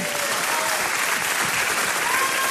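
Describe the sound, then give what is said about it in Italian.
Steady, dense applause from a TV studio audience welcoming film director Matteo Garrone, a continuous wash of many hands clapping at even loudness, with a faint tonal hum running underneath. “anche il pubblico da casa starà applaudendo ma non si sente, però tu immaginalo, intanto benvenuto.”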